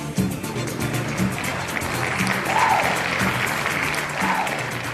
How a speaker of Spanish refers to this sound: Entonces terminamos de bailar la lambada, con todos los primeros ministros, ministros, periodistas y todo el mundo nos, este, nos aplaudió.